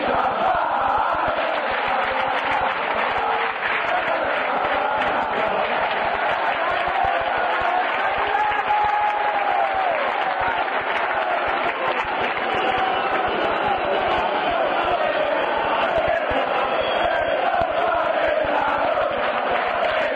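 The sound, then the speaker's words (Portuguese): A large crowd of AS Roma football supporters sings a drinking chant together, a dense, steady roar of many voices that carries on without pause for the full length. “Então, vamos ouvir é, a torcida da Roma se embebedando.”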